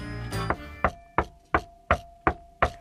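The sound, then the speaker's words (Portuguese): Seven firm knocks on a door, evenly paced in a steady rhythm, each a sharp rap with a short ringing decay, following a brief tonal swell at the start. “mas eis que se aproxima o lobo tirano e bate à porta sete vezes.”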